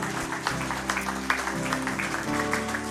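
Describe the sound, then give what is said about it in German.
A crowd at a church service claps steadily for a few seconds for people who prayed and believed that day, the dense patter of many hands, with a low sustained musical tone humming underneath. “Hey, lass nochmal einen großen Applaus geben für Menschen, die heute zum Gebet gebetet haben, geglaubt haben.”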